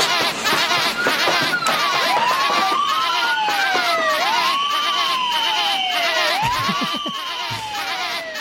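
An alarm siren in the audio micro drama Crime Don't Pay wails in repeated rising and falling sweeps, roughly one cycle every second or so, loud over a dense, noisy background of crowd-like clamor.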